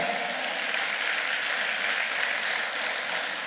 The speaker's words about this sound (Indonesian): Sekarang tepuk tangan Pak.